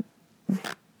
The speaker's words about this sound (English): excuse my dog if you hear him breathing because he's my co-pilot today